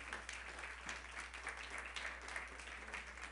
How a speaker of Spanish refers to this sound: Dele un fuerte aplauso al Rey, por favor.